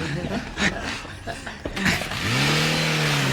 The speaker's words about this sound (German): Da! Da! Da fährt ein Auto weg.